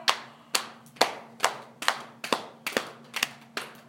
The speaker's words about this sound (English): And inhale, reach back behind you. Exhale, pat out the left thigh.